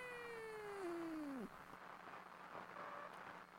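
A cat lets out one long, loud meow, its pitch sliding steadily downward before cutting off, followed by quiet background noise with a faint brief tone.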